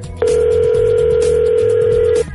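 A single steady electronic ringback tone sounds through a phone line for about two seconds, loud and unbroken, with faint low background music underneath and no one answering.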